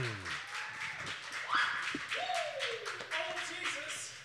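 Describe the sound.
An audience applauds steadily for about four seconds, a dense wash of clapping mixed with cheering voices and a few rising and falling whoops or whistles over the top.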